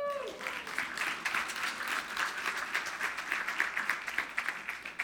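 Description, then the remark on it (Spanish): Sustained audience applause given to Christ, a dense wash of many hands clapping steadily at a fairly even loudness for several seconds, with no one speaking over it. “Dar un aplauso a Cristo.”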